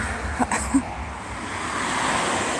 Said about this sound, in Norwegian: Idet hun åpner døra, blir hun møtt av trafikken som har begynt å ta seg opp igjen etter at veien i går ble ryddet med dynamitt.